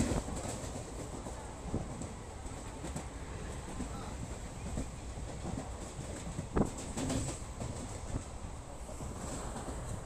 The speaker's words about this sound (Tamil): train journey start பண்ணுறேன் so outro கொடுக்கும்போது உங்களை மீட் பண்ணுறேன் நடுவில் ட்ரெயின் ஜேர்னியோடைய ஆடியோ அந்த மாதிரிலாம் இன்க்ளூட் பண்ணுறேன்